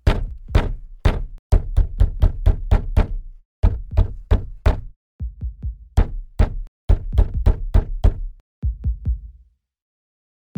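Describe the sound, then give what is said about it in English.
A rapid series of loud knocks on a door, coming in several bursts of four to six sharp raps with brief pauses between, no voices present. “Isn't that somebody at your door, pal?”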